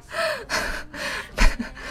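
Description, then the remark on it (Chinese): Several loud, breathy inhales and exhales follow one another in an uneven rhythm, with gasp-like bursts and no speech. The sharpest breath comes near the end. “哦，错了，人家说的是呼吸声。”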